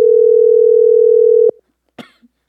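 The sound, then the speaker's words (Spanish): A steady, loud telephone dial tone hums at a single mid-low pitch for about a second and a half while a call to a friend is being dialed, then cuts off, followed by a brief cough-like burst. “Vamos a marcarle a nuestro amigo el pajarito para que nos desinforme el pajarito.”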